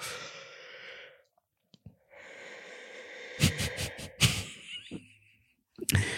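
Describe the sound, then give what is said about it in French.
A person yawns with a long, breathy, drawn-out exhale, briefly breaking off, then a noisy stretch with a few sharp voiced bursts near the end, trailing into quiet. “je pense que je vais laisser ce bâillement euh, dans le montage.”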